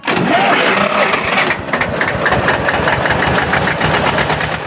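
A tractor engine cranks and catches, then settles into a steady, loud, rhythmic idle with a knocking diesel chug, with no talking.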